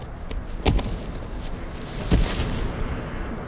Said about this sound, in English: The sheriff shot Kimber in the chest where she stood.